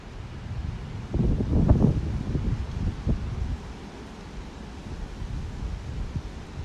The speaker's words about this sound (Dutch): Laat je meevoeren op de wind van het universum. Het waait nu vrij hard.